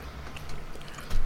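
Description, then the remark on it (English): Someone bites into a thin, brittle, crumbly cookie, chewy on the outside and gooey inside, and chews it, with a brief run of soft, crumbly crunching that grows louder right at the end. No one speaks. “It's looking quite crunchy. Very it's crumbly. Very chewy on the outside, gooey on the mm. inside.”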